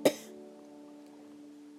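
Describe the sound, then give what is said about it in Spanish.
A single short, sharp cough bursts out at the very start, then gives way to a steady, soft sustained tone that hums on quietly underneath until the end. “Viaja en las gotitas de agua y saliva que expulsa una persona enferma cuando tose o estornuda.”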